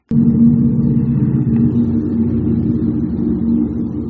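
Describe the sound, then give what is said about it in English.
A train roars past, a heavy, steady low rumble with a droning mechanical hum that holds loud and constant for several seconds without any voices; the train, painted with a giant Google Chrome banner ad, runs past an apartment window in Silicon Valley. “Instead of a shiny blur of stainless steel, it became a mobile billboard for Google Chrome, a giant banner ad thundering past my window every hour or so, more often whenever I'm recording.”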